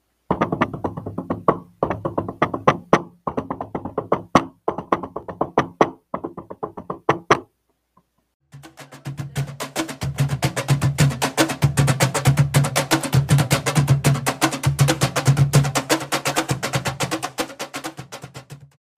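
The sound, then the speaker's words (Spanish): A Peruvian cajón plays an Afro-Peruvian festejo rhythm, opening with sharp, spaced slaps, then a brief pause before a dense, driving groove of rapid bass and slap strokes, loud, with no voices. “Yo no como rocoto, sí señor. Yo toco festejo.”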